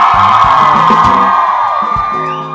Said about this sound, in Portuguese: E nós estamos aqui para fazer Ribeirão Preto mais feliz. quem tá feliz dá um grito aí pra todo mundo que tá ouvindo